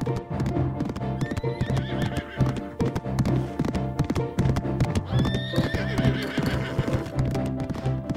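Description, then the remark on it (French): A black horse's hooves clip-clop in a quick, steady rhythm, with the horse whinnying loudly a couple of times over the hoofbeats. No one speaks. “Accroché à la crinière de son beau cheval noir, notre lutin arrive en un rien de temps chez son voisin le gnome.”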